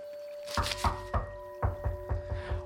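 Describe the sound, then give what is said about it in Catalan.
Firm knocking on the front door of a house in two bursts, a quick run of about four dull thuds, a brief pause, then five more evenly spaced raps, over a steady faint background tone. “Quan en Soler pensava en com podia aconseguir l'espasa, van trucar a la porta de casa.”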